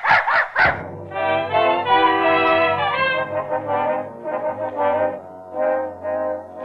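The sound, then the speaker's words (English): A dog, Mrs. Pondecker's dog Rintin, gives three quick, sharp barks, then breaks into a long, drawn-out whine or howl that wavers in pitch and rises and falls for several seconds. “I uh, came for Mrs. Pondecker's dog to take him for a walk.”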